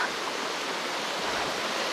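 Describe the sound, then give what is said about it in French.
A very tall waterfall roars steadily and loudly, a dense, unbroken rush of falling water filling the whole clip with no pauses or other sounds. “toujours impressionnant l'énergie d'une cascade.”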